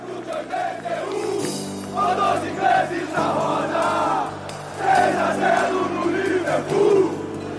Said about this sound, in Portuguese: O time foi recebido por uma multidão em êxtase no Rio de Janeiro.